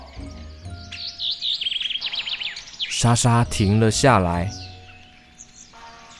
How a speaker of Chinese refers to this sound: 你有听到那只鸟在唱歌吗？嗯，好好听哦。